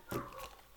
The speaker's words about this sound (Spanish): ya empezó el perro.